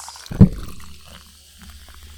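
A freshly opened Four Loco being poured, starting with a brief splashy burst and settling into a soft, steady trickle and hiss for the next couple of seconds, with no talking.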